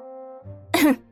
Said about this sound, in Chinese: 说到这里，黎洛下意识的卡顿了一下，轻轻的咳嗽了一声。